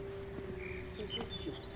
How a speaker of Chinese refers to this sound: 光是我们走这一圈，那个那个鸟叫声就充满了各式各样的鸟叫声